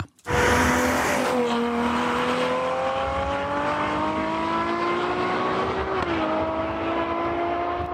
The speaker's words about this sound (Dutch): Ja, Eigenlijk gaat het eh, alleen maar om het dakje, maar ook een beetje om het geluid natuurlijk. 6,5 liter V12 met 800 pk.